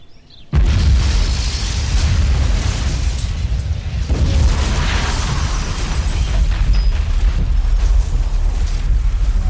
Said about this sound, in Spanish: A esa explosión le sigue un lento silencio.